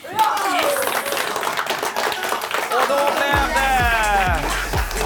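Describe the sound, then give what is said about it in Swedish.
An audience cheers and claps steadily, a dense wash of hand claps mixed with rising and falling shouts and whoops, loud throughout, with a few sharp low thumps near the end. “Publikens jubel blev det.”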